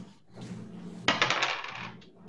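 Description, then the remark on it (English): A small six-sided die, rolled as 1d6 in a tabletop game, hits a hard tabletop with a sharp clack, then rattles and tumbles for about a second before settling on a two. The sound is fairly loud over faint background noise. “Um, let's say uh, the butt of a shotgun could be like a, uh, a club, so you could roll 1d6.”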